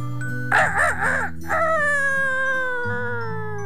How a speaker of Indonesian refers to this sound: Pagi harinya ketika si ayam jantan berkokok